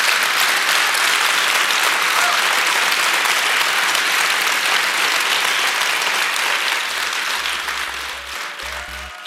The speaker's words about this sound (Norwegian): Og da tenker jeg det at vi skal gi en dundrende applaus til den mannen.